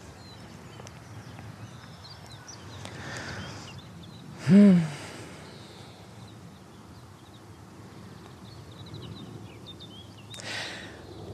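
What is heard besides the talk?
birds chirping outdoors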